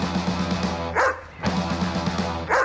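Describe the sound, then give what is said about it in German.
A leashed dog barks and yaps repeatedly in sharp bursts, loud, over a steady low hum of background noise, with no one speaking. “dahinter ein Hund wartet”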